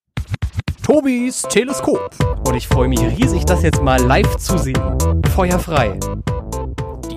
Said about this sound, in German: die heißt Tobis Teleskop, hat ein eigenes Jingle und das klingt so.